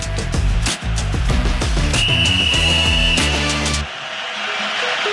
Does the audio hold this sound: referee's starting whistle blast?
yes